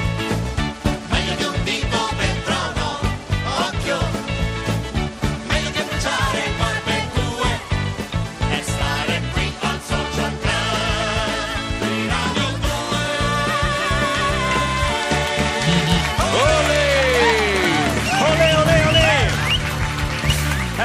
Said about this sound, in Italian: Sigla.